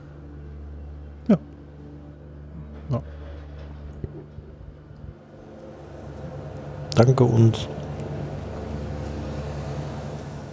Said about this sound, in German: Das ist ein Rasenmäher, ne? oder was ist das da draußen? Klingt wie ein Moped.